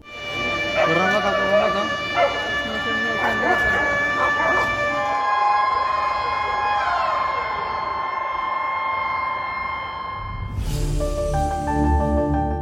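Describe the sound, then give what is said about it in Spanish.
Loud electronic earthquake warning alarms in Colombia, sounding around 4:18 a.m. local time during a strong earthquake: layered steady tones with rising and falling sweeps, shifting into a harsher pulsing alarm near the end, with faint voices mixed in beneath. “Pues ahí escuchaban las alarmas con las que gran parte de los colombianos nos despertamos hoy.”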